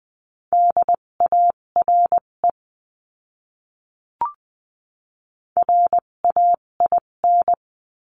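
Morse code beeps at a steady mid pitch from a practice lesson sending words at 14 to 20 words per minute tap out two runs of short and long tones, split by a silent gap broken only by a faint brief click. No voices.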